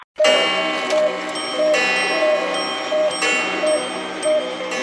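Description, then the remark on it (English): A dense chorus of many clocks ticking and chiming at once, bright ringing tones layered over steady ticks, loud, with no voices. “Are those my clocks on here?”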